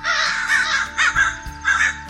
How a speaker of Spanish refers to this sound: Graznaba desesperado, volando tan rápido como podía